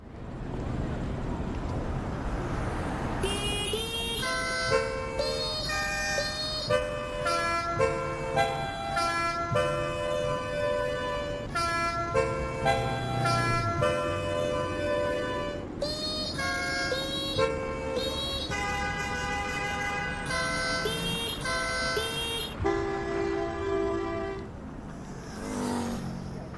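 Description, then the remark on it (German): Many car horns honk in coordinated bursts, tooting out a melody of held and repeated notes over a continuous rumble of traffic, loud, with short pauses between phrases, in a traffic jam on a six-lane urban motorway in a big city. “aber dazu müsst ihr erstmal erraten, welches Lied hier im Stau auf der sechsspurigen Stadtautobahn gehupt wird. Ein Hubkonzert in der Großstadt.”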